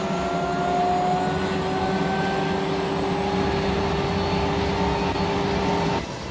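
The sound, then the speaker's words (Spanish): A Cougar military helicopter's engine and rotors spin up before taking off to fly over a parade, a loud, steady turbine whine with slowly rising tones over a constant rumbling roar. No one speaks. “echaron a andar las hélices y luego de mil plegarias a Chuchito, el señor productor y yo estábamos listos para la misión. El helicóptero ya está sonando”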